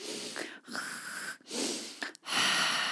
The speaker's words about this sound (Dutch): En het omvat het inademen en uitademen door de neus, terwijl je de keel dan samentrekt en een soort van suizend geluid gaat creëren.